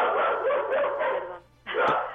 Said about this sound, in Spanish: También quiso opinar el perro.